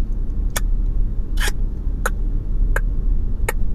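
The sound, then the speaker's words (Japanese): Five crisp clicks made by sticking the tongue behind the upper teeth and pulling it away, spaced about every half to one second, fairly loud over a steady low rumble of background noise. “それで、舌をね、上の歯の後ろにこう、ひっつけるわけですよ。ひっつけて、その、ペタン、ペタンって音を出すっていうことを昔やったことないですか皆さん。”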